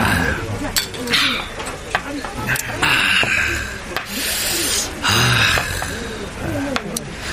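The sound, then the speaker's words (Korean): Several sharp, bright clinks of drinking glasses tapping together in a toast while drinking alcohol, scattered over a few seconds amid noisy, bustling surroundings with voices murmuring in the background. “자, 짠합시다. 네, 알겠습니다. 짠! 짠.”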